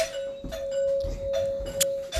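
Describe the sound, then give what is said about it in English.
A doorbell being rung over and over by a boy playing with it, a steady ringing tone running throughout with several brief, bright bursts at irregular intervals; no one speaks. “sorry if you guys heard doorbell my son's playing with the doorbell why i don't know i really wish he wouldn't”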